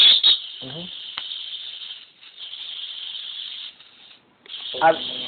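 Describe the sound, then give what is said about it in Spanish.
A person imitates a snake with a long, steady, sharp hiss that runs for several seconds and breaks briefly near the end, with short voiced noises at the start and finish. “habla serpiente, habla.”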